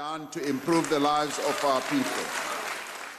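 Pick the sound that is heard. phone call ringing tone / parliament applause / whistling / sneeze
parliament applause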